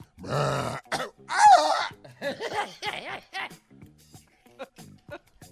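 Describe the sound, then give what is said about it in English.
A person vocally imitates an injured mountain lion with a couple of strained, harsh yowls, followed by groaning, wavering vocal sounds that trail off into softer bits. “That's an injured mountain lion.”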